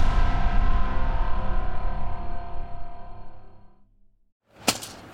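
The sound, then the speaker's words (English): A rake whacks the ground, leaving a loud metallic ring that slowly fades over several seconds; after a brief silence, a second sharp, rattling thump follows. “It's the sound of someone whacking the ground with a rake.”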